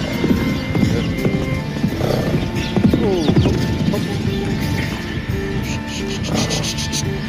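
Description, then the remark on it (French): Horse hooves clip-clop steadily across soft ground in a riding arena, several horses moving at once amid a busy outdoor ambience, with a brief whinny-like sound and faint murmurs in the background. “Il y a moins de chevaux dans la carrière, du coup, il fait de clou.”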